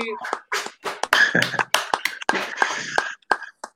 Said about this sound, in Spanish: le pido a la gente que le demos un gran aplauso por estar aquí.